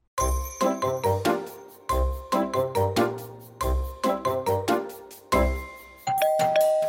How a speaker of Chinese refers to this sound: 门铃响了，波波的朋友们兴奋地冲进来